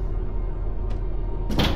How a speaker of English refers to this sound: This one started with a sound banging on glass coming from somewhere in the back of Tyler's house, so I followed it, expecting to find someone or something like knocking on a window or something.